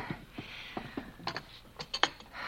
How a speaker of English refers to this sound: If you'll open the door. Sure thing. There you are.